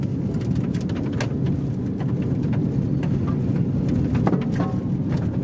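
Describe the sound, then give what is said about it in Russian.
Loud, steady low rumble of a car driving fast, at about 100 to 110 km/h, over a rough road, with frequent sharp knocks and rattles as the wheels hit bumps, recorded from inside the vehicle. “Давайте на вашей машине 120-130 проедемся по этой дороге.”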